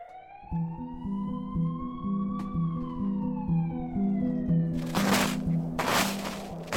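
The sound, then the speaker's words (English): Emergency vehicle sirens in the distance: a wailing siren slowly rises and falls in pitch, set against a low, pulsing droning bed, with bursts of harsh rushing noise near the end. “Already there are sirens in the distance.”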